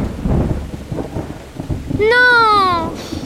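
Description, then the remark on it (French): Steady rain with low rolling thunder rumbling, briefly joined near the end by a drawn-out, meow-like tonal cry over the storm noise. “Il fait orage maintenant.”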